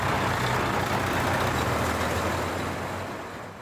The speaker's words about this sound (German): Fertig sein soll der Gewerbepark in Katzis dann im Herbst. Bis dann werden aber noch die einen oder anderen Lastwagen mehr ein- und ausfahren.